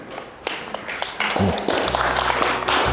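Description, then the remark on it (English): An audience breaks into applause, a dense wash of many hands clapping that swells and holds steady at a moderate level, with a low rumble underneath partway through. “too late for applause.”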